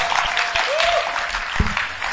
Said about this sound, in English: I clap your hands for Jesus and sit down, my dear. Your clapping can be better. You're clapping for Jesus.